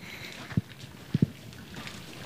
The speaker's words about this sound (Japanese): 横に流れている小さな川が瀬戸川そしてこの町並みは白壁土蔵街といって城下町飛騨古川を象徴するようなエリアなんですねこうやって歩いていても川のせせらぎの可愛らしい音がちょろちょろちょろって聞こえてきますね